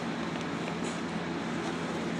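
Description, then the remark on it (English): A steady, enveloping rumble of a moving train heard from inside a carriage, with a constant low hum and broad hiss and no speech. “So we are now on the train”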